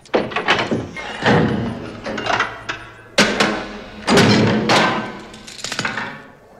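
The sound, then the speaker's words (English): A door is unlocked and opened: a busy run of metallic clicks, clunks and sharp thuds spread over several seconds, with no one speaking. “I remember the days we didn't have to lock our doors.”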